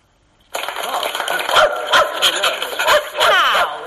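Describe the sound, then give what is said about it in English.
A dog named Amos barks and yips repeatedly in quick, uneven bursts after a short silence, fairly loud, with some rustling or voices mixed underneath. “Uh, is, is that your dog?”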